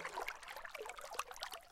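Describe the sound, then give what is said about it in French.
Oars of a canoe dip and splash through the water at a moderate pace, gentle sloshing and dripping in an unhurried rhythm, with no one speaking. “le bruit des rames”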